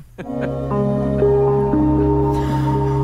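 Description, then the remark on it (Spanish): Slow, calm instrumental music with sustained, droning synth-like tones and gently shifting notes, played steadily at moderate volume with no voices; from a two-hour YouTube video titled 'Música para hacer caca' (music for pooping). “Por ejemplo, en YouTube me he encontrado un vídeo que se llama Música para hacer caca.”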